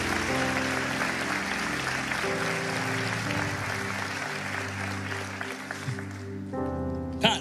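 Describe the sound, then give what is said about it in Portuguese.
Church audience applause for Jesus, a dense, steady wash of clapping from many hands, carries on for several seconds over sustained musical chords, with no talking. “Bota a salva de palmas para Jesus aí, bem forte.”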